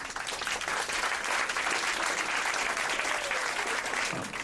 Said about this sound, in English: I mean, I'm clapping with you. That was damn near everybody.